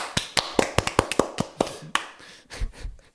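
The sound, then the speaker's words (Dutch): A brief, sparse round of applause for an audience warm-up man: about a dozen sharp, uneven hand claps that grow softer and trail off within a few seconds, with no voices. “Goed gedaan, zaalopwarmer. Zo, applaus.”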